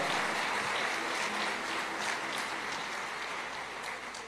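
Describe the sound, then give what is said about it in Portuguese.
Steady audience applause for Jesus during a pastor's sermon, a dense wash of many hands clapping at an even, sustained level that fades slightly toward the end, with no voices standing out. “Pode aplaudir Jesus por isso.”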